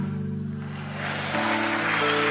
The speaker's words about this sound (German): Und dann dürfen wir klatschen.